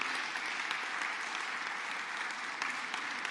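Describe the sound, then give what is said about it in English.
An audience at a meeting applauds the sound engineers: a dense, sustained wash of many hands clapping steadily at moderate loudness throughout, with no pauses or voices breaking through. “So let's take this moment to give the sound engineers an, an applause and thank you.”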